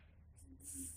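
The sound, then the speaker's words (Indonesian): A voice imitates an alien sneezing: a brief breathy lead-in, then a single hissing, spray-like burst of air, quiet and without any words. “alien bersin ya”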